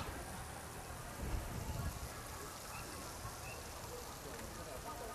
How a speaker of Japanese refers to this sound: 結構雨降ってんな